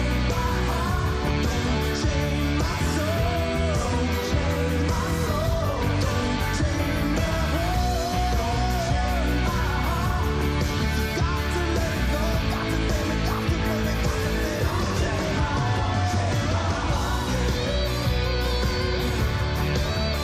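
A rock band's new single plays at a steady, loud level, with dense guitars, bass and drums filling the mix and no talking over the track.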